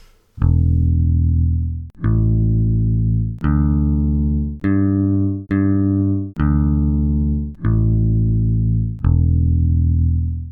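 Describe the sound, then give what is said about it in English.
Open bass guitar strings plucked one at a time in a clip showing how to tune a bass, eight deep ringing notes that step up in pitch and then back down, each sustaining for about a second with no voices. “That is a that is a clip I pulled off the internet of uh, how to tune your bass.”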